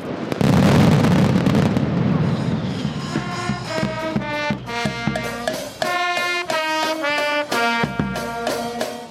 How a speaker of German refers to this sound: Beendet wird die Knallerei mit einer Kaskade von Böllern, dem sogenannten Terremoto, auf Deutsch Erdbeben. Und genau so hört und fühlt es sich auch an.